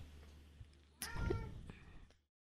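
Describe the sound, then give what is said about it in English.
A female cat lets out a single drawn-out meow, fairly loud, with a rising then falling tone that fades out after about a second, over a faint low hum. “Come here, Kitty. I think she's got some stuff to talk about.”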